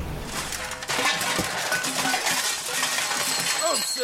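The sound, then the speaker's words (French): A pile of croquet mallets clattering and tumbling down from behind the door of a fake windmill as someone looks for a chair, a loud, continuous jumble of wooden knocks and clinks that swells after the first second and keeps rattling for several seconds. “désolé, Majesté, je me cherchais une chaise et je ne croyais pas qu'il y allait avoir autant de bâtons de croquets derrière la porte de ce faux moulin à vent.”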